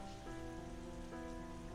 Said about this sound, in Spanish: Durante toda la noche ella podría oír la lluvia azotar, escurrirse por las hojas del gomero como por los canales de mil goteras fantasiosas